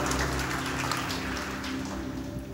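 An audience applauds in a dense, steady wash of clapping that holds at an even level throughout, over a low steady hum, with no voices.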